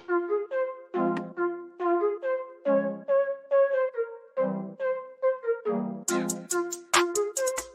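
An intro theme plays on its own: a bouncy melodic tune over punchy bass pulses, with crisp percussion hits joining in toward the end. No one speaks over it.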